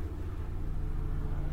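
A helicopter drones overhead, a steady low rumble with a throbbing engine hum that holds constant and fairly loud throughout, with no voices.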